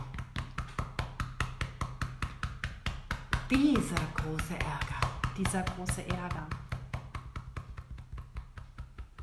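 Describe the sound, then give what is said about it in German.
Steady, rapid tapping with a flat hand on the collarbone and breastbone, a continuous series of soft thumps running the whole time while a voice speaks over the rhythm. “Jetzt klopfen wir mit der flachen Hand auf das Schlüsselbein und auf das Brustbein so.”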